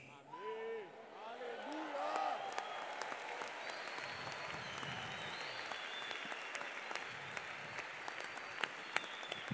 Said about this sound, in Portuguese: Pode aplaudir o único que tem imortalidade